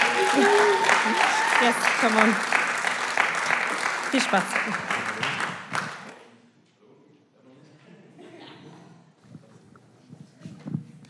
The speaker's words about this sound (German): mal einen fetten Applaus für …